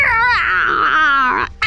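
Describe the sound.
A voice imitates the cry of a cat heard on a roof: one sustained, high-pitched, wavering yowl lasting over a second, loud and quivering, then cutting off abruptly.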